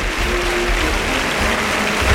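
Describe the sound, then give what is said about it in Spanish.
A bullring crowd gives a sustained ovation to bullfighter Miguel Ángel Pereira as he comes out to salute, dense clapping and cheering that stays loud and steady throughout, with no pauses and no voice rising above the noise. “Bueno, pues ovación para Miguel Ángel Pereira que sale a saludar.”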